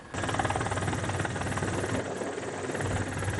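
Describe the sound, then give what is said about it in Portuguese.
A police helicopter used to disperse beachgoers at Capão da Canoa, on the north coast of Rio Grande do Sul, roars steadily overhead, its rotor thudding in a fast low rhythm beneath a constant loud engine whine, with no voices. “Um helicóptero da polícia foi usado para dispersar os banhistas.”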